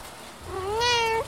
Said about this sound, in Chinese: 可怜的小猫看到大雄离开后，叫得更大声。